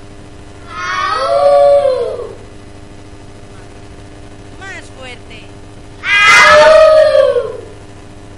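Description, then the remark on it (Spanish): Children's voices, the pack Los Lobos del Bosque, imitate a wolf pack to end the session, howling together in two long, loud, wavering bursts. Between them a brief spoken prompt is heard, and the second howl is louder. “Pues vamos a acabar con un aullido de la manada Los Lobos del Bosque.”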